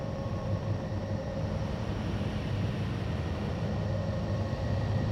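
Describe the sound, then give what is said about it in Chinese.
A recorded planetary magnetosphere sound: a steady, wind-like roar heavy in low rumble, with faint sustained whistling tones above it, unchanging in loudness for the whole stretch and with no voices. “那这些声音，它们有的狂野豪放，像遥远山谷里的狂风”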